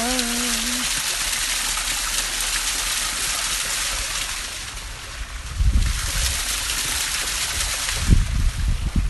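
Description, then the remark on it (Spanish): Water pours and runs in a steady rush, swelling into heavier splashing gushes partway through and again near the end, with a brief humming tone at the very start. “y dejando correr esta agüita con las palabras, con las frecuencias.”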